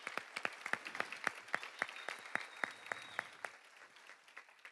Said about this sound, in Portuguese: Um fortíssimo aplauso para eles, por favor, gente.